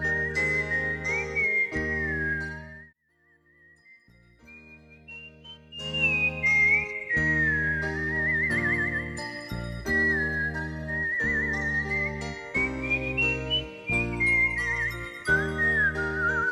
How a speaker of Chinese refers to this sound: 警官随处走走。隐约间听到寒风中传来口哨的声音。